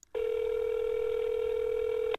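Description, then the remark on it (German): A single long ringback tone from a call made on a mobile phone, one steady electronic beep held for about two seconds at an even, moderate volume, with no voices. “Ja, aber es tut es doch immer erstmal noch dreimal tun und dann Mailbox.”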